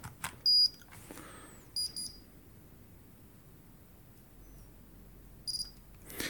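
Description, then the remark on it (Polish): A Braille Pen 12 Braille keyboard's power-on sequence, started with the Space plus K key combination: three clusters of high, bright electronic beeps spaced a second or more apart, crisp against a quiet background. “Taka seria dźwięków towarzyszy uruchamianiu Braille Pena 12.”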